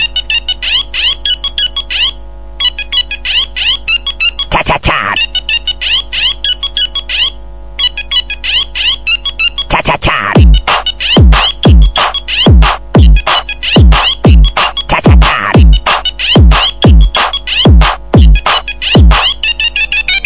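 A ringtone opens by imitating a classic Nokia mobile phone ring melody in bright synthetic tones, then switches abruptly to a punchy beat with repeated bass hits and a mocking remix of the tune.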